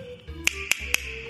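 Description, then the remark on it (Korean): Three sharp, bright castanet clicks ring out at an even, unhurried pace, crisp, with a faint low hum in the background and no one speaking. The castanets, shaped somewhat like a clam shell, are played by hand, snapped shut to make each click. “이게 생긴 게 약간 약간 조개처럼 생겼어요.”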